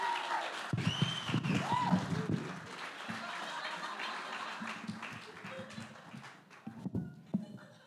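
An audience applauds, a dense, steady patter of many hands clapping that holds for the whole stretch, with a few voices and some laughter mixed in.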